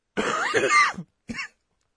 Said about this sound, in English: This is how you start a podcast by coughing.